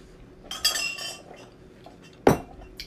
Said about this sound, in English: miscellaneous noises, including crab rangoons and boba tea being shuffled around, may bring lovely audio to your ears as well.